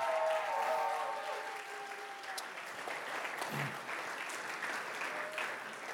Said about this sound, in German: Hey, wir wollen mal all den Leuten in Erlangen mal ganz herzlich willkommen heißen und, und sie einfach segnen mit einem mächtigen Applaus hier in Nürnberg.